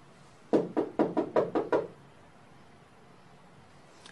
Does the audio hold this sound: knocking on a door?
yes